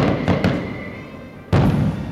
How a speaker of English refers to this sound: And here's a rando fireworks because I have no excuse to use it anymore. So this is for you guys, our new patrons.